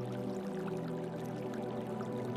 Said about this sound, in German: Nur der kleine Bach am Ende des menschenlosen Weges ist noch nicht erstarrt.